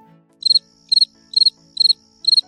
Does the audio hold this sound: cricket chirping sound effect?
yes